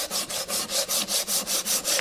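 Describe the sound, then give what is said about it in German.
Sandpaper rasps back and forth over a primed wooden picture frame, roughly sanding the surface smooth to prepare it for gilding, at the Atelier Goldrichtig in Wieden, Vienna, in quick, steady strokes, about ten even passes of dry, hissing friction with no voices. “und mit dem schleife ich jetzt mal grob die Oberfläche glatt.”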